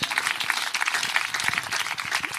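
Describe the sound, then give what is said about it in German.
Steady audience applause for the staff behind the counter, a dense rush of many hands clapping at once, fairly loud and continuous throughout with no voices standing out. “Der Applaus ist für euch hinter der Theke.”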